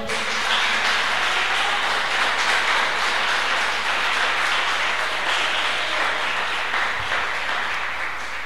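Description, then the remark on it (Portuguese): An audience applauds in a loud, steady wash of many hands clapping at once, sustained evenly for several seconds with no voices rising above it. The applause is for the Lord, following a prayer at a church service. “Aplauda ao Senhor.”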